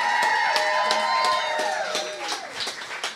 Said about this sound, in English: thank you guys so much for coming out tonight. And it's a little bit redundant, but let's get another round of applause for … and for ….